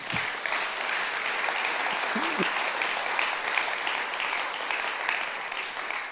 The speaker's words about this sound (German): Das ist ein Applaus wert, tatsächlich.